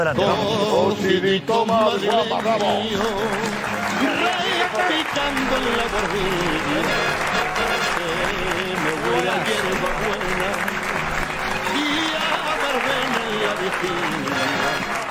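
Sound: applause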